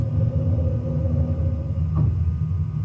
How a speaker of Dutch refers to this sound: Hoor je de wiel omhoog gaan? En dan moet je opletten als de luiken dicht slaan. Dan krijg je echt een klap in je kont.